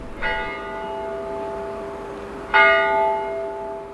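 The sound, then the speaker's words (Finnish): Two loud strikes of a large bell of Turku Cathedral, by the Aura River in Turku, Finland, about two and a half seconds apart, each with a rich, ringing tone that hums on and decays slowly. No voices are heard. “Ja tässä on vieressä tuomiokirkko ja sitten tuolla on talo, Rinkkalan talo, joka on suomalaisille tuttu jouluaattona näiden kellojen jälkeen.”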